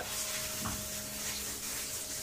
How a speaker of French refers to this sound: Vous êtes dans votre salle de bain. L'eau coule.